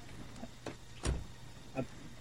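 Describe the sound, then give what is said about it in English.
A few short mechanical clunks and thumps, with one louder slam in the middle, like a car door opening and shutting as the player's character gets into a car in a video game, against a low steady hum. “I'm getting in the car right now, by the way.”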